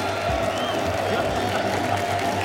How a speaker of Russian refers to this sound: Зрители стоя аплодируют.